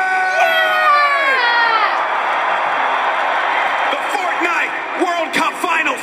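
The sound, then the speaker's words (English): A loud arena crowd at the Fortnite World Cup final in New York City roars, cheering, screaming and whooping continuously, with high-pitched shrieks and shouts rising above the dense wall of noise throughout. “This is my hometown, and I know we can make some noise. So I'm asking you one more time. Are you ready?”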